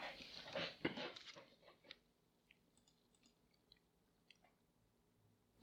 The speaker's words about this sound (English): Excuse me. Let me get a sip off my Coke here.